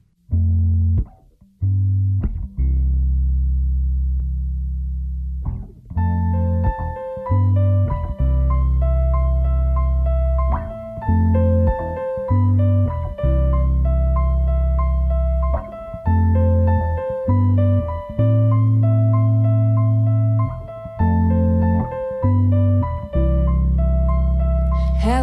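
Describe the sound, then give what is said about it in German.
A loud rock song from a cantonal school band in Trogen, with distorted electric guitar chords over a heavy low end. A few sparse hits open it before the full band kicks in with a steady driving rhythm. “Hören wir gerade mal den Song aus Trogen, leider auf Kanal K ohne die passenden schönen Bilder”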